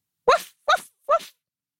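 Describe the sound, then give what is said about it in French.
A dog gives three short, evenly spaced bark-like huffs, fairly loud, with a playful, laughing quality and brief silences between them. “le chien rit dans son coin.”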